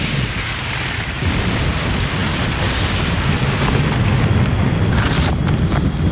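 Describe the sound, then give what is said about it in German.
Thunder rumbles steadily through the whole stretch during a storm with lightning, a deep, loud, continuous roll with a broad hissing wash on top and no voices. “Keine Ahnung, aber es blitzt. Und donnert.”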